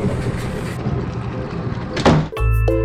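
A single solid thud of a door shutting rises out of a steady background hiss, followed immediately by sustained tonal, music-like sounds.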